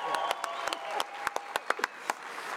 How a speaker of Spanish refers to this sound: Muy bien, un aplauso.